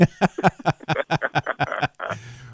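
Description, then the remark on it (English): An ice scraper rasps ice off a windshield in about ten quick, rhythmic strokes, each a short harsh squeak, fairly loud. A lower, steadier scraping rumble follows at the end. “Oh, it, it, it, that is scraping of the ice.”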